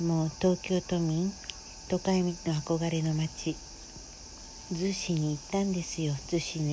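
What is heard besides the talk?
cicadas chirping outdoors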